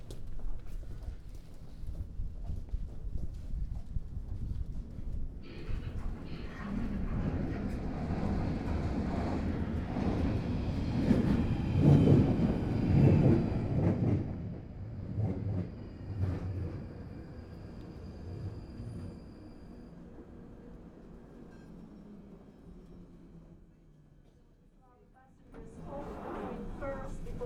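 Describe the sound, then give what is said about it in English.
An underground train rumbles into the platform at London Bridge station, its deep roar swelling and easing over about twenty seconds with a steady high-pitched whine, while indistinct voices murmur in the background. “Stand back behind the yellow line for your own safety. Also try to use full length on the platform in order to improve your access to the train.”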